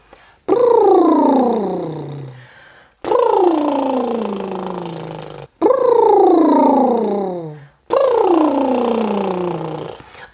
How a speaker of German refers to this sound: Und das Wassersprudeln der Dusche erinnert uns an die Übung Lippensprudeln. Ähm, ich feuchte dazu meine Lippen etwas an, hole Luft durch die Nase und lasse dann meine Lippen flattern.